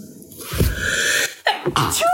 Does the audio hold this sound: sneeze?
yes